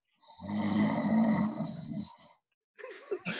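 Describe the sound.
A person imitates one long, loud, rasping snore lasting about two seconds, the snoring of an actor lying on the ground on a film set after the take was called cut, followed after a brief pause by the start of another vocal sound.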